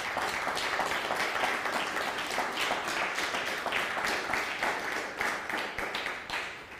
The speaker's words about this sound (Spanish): Un fuerte aplauso.